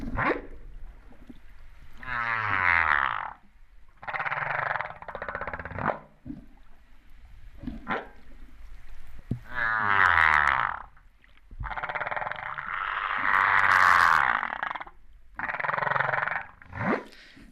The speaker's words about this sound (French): Alors encore un autre son qui a beaucoup de sens aussi, c'est une baleine, une baleine à bosse.